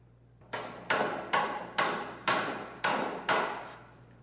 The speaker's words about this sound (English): You see, uh, when a saw is sawing wood, that's holiness. It was made to saw wood. When a saw is being used like a hammer, that's unholiness. That's sin.